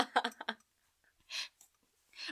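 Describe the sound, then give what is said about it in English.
A paper page is turned with a quick, crisp swish, preceded by a flurry of light clicks and handling noises and followed by a second brief rustle, fairly quiet. “oh, I heard that paper turn.”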